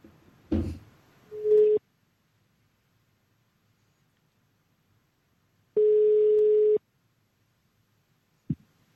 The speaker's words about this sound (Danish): lad os prøve at ringe Kia op nu, og så se, om hun, kan, om hun tager telefonen